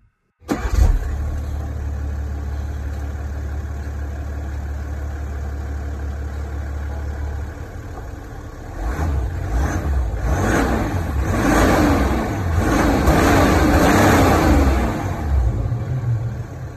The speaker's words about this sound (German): Wir starten den Motor. Komm. Fahren.